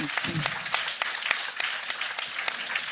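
An audience in a tent applauds steadily, many hands clapping in a dense, continuous patter with a few sharper claps standing out, while a low murmur of voices sits beneath at the start.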